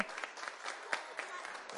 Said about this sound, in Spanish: Aplauso para nuestro otro amigo.